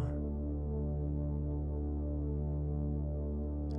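Binaural beat tones for a sound meditation: a steady, loud low drone of layered sustained tones with a slow pulsing throb, continuous and unchanging throughout, with no voices.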